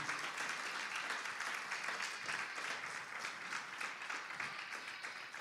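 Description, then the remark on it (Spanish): A church audience breaks into sustained applause for the Lord, a dense, steady wash of many hands clapping at even loudness for several seconds, with no clear speech over it. “Démosle un aplauso fuerte a nuestro Señor.”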